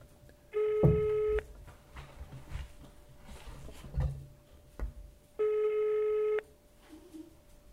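Two long buzzing ringback tones of an outgoing phone call to the head of the Aloja hunters' club, each about a second long with a pause between, steady and fairly loud, with faint background clatter.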